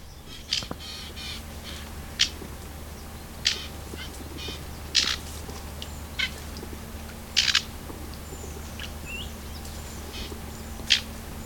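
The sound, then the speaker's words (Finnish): A young male songbird practises subsong in short, scattered chirps and scratchy notes, spaced irregularly over several seconds, fairly soft against a steady low background hum. “Nuorten koiraiden laulun tapailua ja lauluharjoittelua kuulee elosyyskuussa, varsinkin aurinkoisena aamuina.”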